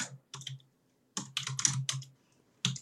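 Clattering keystrokes on a computer keyboard as someone searches for signatures and information on the computer, tapped in quick uneven bursts with brief pauses between flurries, with no voices.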